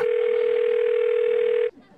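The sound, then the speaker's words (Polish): A steady, loud smartphone call tone, heard after a man dials a number from an advertisement on his smartphone screen and holds it to his ear, holds one mid pitch for about a second and a half, then cuts off abruptly, leaving faint background noise. “Mężczyzna wystukał na ekranie swojego smartfona numer podany w ogłoszeniu, po czym przyłożył aparat do ucha.”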